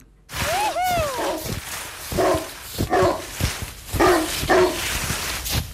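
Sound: dog barking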